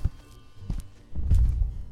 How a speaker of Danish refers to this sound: Man mener, han har været nattevagt i The Vaults, og du kan stadig høre hans tunge fodtrin rundt i gangene.